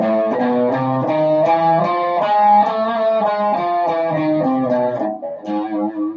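A Hungarian minor scale on A (A, B, C, D sharp, E, F, G sharp) played on a sustained, slightly buzzy instrument, its notes stepping steadily one after another over a held lower harmony, loud and continuous with no talking.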